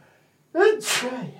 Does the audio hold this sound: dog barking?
no